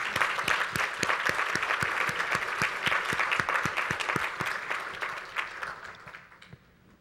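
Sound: audience applauding the choir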